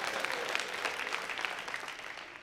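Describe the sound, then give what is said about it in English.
Nigerian members of an audience clap and cheer: a dense, continuous patter of applause with crisp, bright hand-claps scattered through it, holding at an even, moderate level for a couple of seconds with no speech. “The Nigerians, go ahead and cheer right now.”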